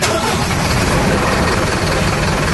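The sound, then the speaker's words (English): A car named Betty turns over and roars to life, is thrown into reverse, and revs hard in a loud, continuous rumble that fills the whole clip without pause. “Ace fires up Betty, throws her in reverse, and guns the engine.”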